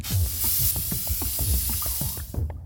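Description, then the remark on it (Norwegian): A steady, loud hiss of an aerosol spray paint can spraying a graffiti tag of a name, running almost unbroken for a couple of seconds before cutting off, with soft low rhythmic thumps underneath. “Han sprayer navnet sitt mange steder.”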